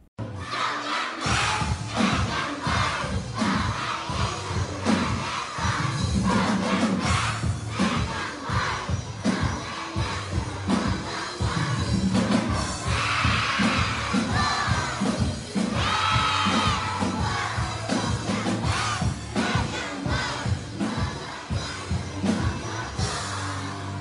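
Drums play a steady, driving beat while a large crowd of children cheers and shouts loudly throughout, a dense, lively roar that never lets up.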